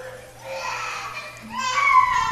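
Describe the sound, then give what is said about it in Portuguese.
A small child fusses and cries out in high-pitched, strained vocalizations that grow louder and more insistent toward the end, with a low steady hum beneath. “Deixa espernear, gritar, ele vai aprender a ficar no canto.”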